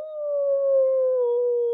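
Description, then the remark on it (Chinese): A voice imitates a wolf's howl with one long, steady mid-pitched note that slides slightly lower toward the end. It lasts under two seconds and is loud, with no other sounds. “这个声音听上去有点悲惨，有点凄凉。肯定是狼！”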